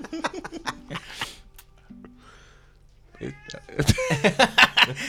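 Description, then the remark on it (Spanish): A cat meows repeatedly to get attention as it hears people talking: a few short calls early on, then a quieter gap, followed by a louder, more insistent run of drawn-out meows toward the end. “Viste, ya se fue el gato mayo.”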